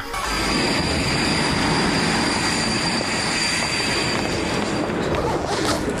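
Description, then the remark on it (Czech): A train rumbles steadily and loudly as it pulls into a station at platform one, arriving from the direction of Hradec, a thin high whine of brakes or wheels running over the heavy, continuous noise the whole time. “Na první nástupiště přijeli rychlíci Kopa Třebovský a Martin Seifert ze směru Hradec.”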